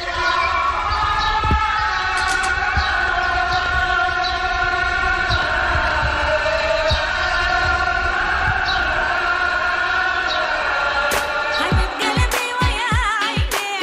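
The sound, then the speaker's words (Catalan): An Islamic call to prayer from a mosque minaret carries across the city of Beirut, Lebanon, during the lockdown: long sustained melodic chanting, amplified and echoing, with a few sharp thuds near the end. “feien una crida a l'oració des del minaret d'una mesquita”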